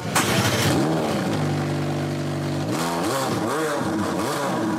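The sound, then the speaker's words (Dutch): A combustion car engine fires up with a sharp start, then revs repeatedly, its pitch rising and falling in several loud, throaty swells, with a steady idle between bursts. No one speaks. “Weet je, dit, dit ga je natuurlijk bij meerdere merken missen.”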